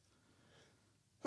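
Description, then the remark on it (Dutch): A quiet, faintly breathy stretch ends abruptly in one sharp, loud sneeze burst, cut off almost as soon as it starts. “gezondheid, gezondheid.”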